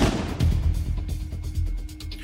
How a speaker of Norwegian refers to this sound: Skuddet treffer Pål Roar i bakhodet